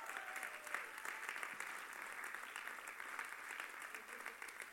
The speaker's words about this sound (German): Von daher gebt doch mal den beiden einen fetten Applaus, weil das vergisst man so im Alltag.